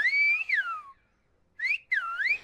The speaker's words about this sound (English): A six year old child crouches on the crest of La Gomera Island's tallest ridge. She brings her hands to her mouth. A whistle, like a sonic blow dart, whizzes from her lips.